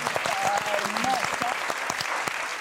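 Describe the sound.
Steady applause from a crowd for the speaker's sister, dense clapping filling the whole moment at moderate loudness, with a few voices calling out faintly underneath.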